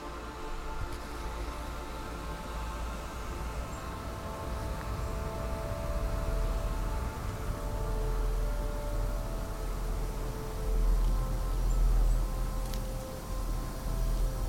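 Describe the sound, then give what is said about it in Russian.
A hair dryer blows steadily as a professional dries and styles a person's hair, a continuous airy whoosh with a faint motor hum underneath, holding the same level throughout with no voices. “Шум фена напоминает шум ветра в поле – большом зеленом поле.”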